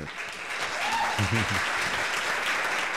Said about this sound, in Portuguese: Começa com palmas. É, não, não é mal, não é mal. O nosso público sempre efusivo.